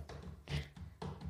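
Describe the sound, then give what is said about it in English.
Quick taps on a hard surface, made by a person imitating Jerry the puzzle-solving dolphin putting jigsaw pieces in place super fast, coming in a few short bursts about half a second apart. “that's the sound of him putting pieces in place super fast.”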